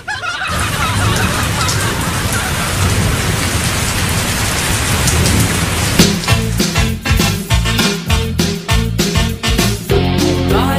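heavy rain falling

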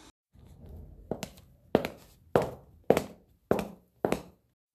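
footsteps

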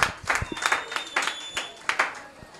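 applause

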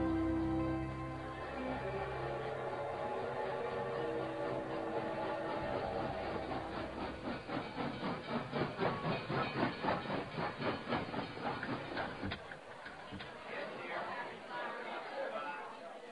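steam train hissing

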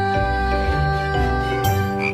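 frog croaking

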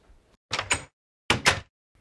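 door being opened

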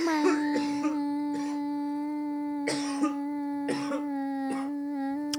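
coughing fit

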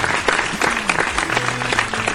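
applause

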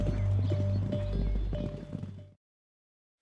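horse hooves galloping

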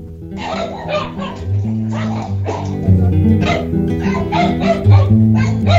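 dogs barking

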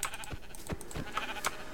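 video game sheep bleating

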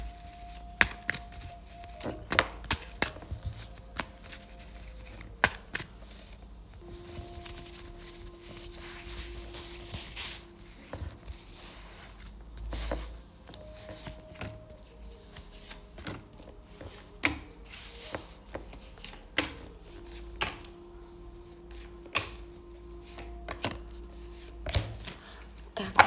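shuffling tarot cards

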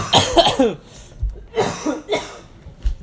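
coughing

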